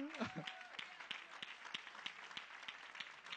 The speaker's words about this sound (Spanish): Dale un aplauso al Señor.